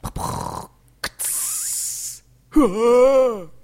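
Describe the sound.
A voice imitates a trapdoor opening with a rasping, creaky snore-like noise, a short hiss, then a long whooshing hiss, followed by a descending wailing tone like someone falling away.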